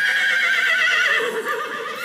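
A horse whinnies loudly, a shrill, quavering neigh that holds for about two seconds before tapering off, with no voices over it.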